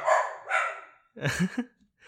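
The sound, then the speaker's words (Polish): The dog Kapa barks, three or four sharp, high-pitched barks with a slightly whiny edge, coming in quick succession with short pauses between them and no talking. “i normalnie ci łapkę daje i jest generalnie mega psem.”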